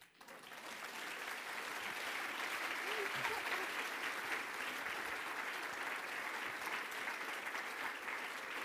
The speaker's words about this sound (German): Ich sage dann immer, dieser Applaus ist jetzt Ihrer.